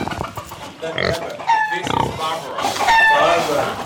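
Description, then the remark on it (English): Pigs kept as pets at Kibbutz Mizra snort and grunt repeatedly, with a few higher squealing noises mixed in, a steady run of rough, nasal animal sounds under some human voices. “Though Mizra no longer raises or sells pigs, it does keep a small, snorting reminder of its porcine past.”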